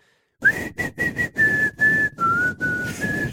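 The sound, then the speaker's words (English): A bright, clear whistled tune from a pop song: several quick, choppy notes, then longer held tones sliding gently in pitch, loud over a full backing track. “type in that if you type in that hipster whistling song into Google, you get that uh”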